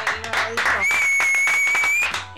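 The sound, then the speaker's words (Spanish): Dense, steady applause with a continuous crackle of claps, joined midway by a long, high whistle held for over a second. Voices are faintly audible underneath. “Ah, aplauso”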